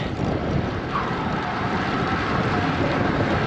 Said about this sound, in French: Le vent, c'est définitivement le, le challenge danois, les amis.